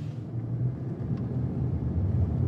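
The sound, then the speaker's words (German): A car engine rumbles low and steady, a continuous droning hum as the car starts to drive off, with no voices. “So, dann fahren wir mal los.”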